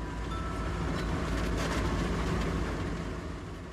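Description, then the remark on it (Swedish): A steady engine drone and road rumble from inside a moving small bus travelling from the train station in Gällivare to Tärende, a continuous low roar with faint rattles, no voices, easing slightly toward the end. “Ni sitter alla tre i en uh, liten buss.”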